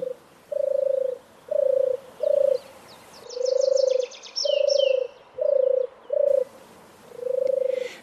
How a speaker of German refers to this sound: Und die berühmte Turteltaube, die übrigens nicht in der Stadt lebt und ein Wildvogel ist, die turtelt so.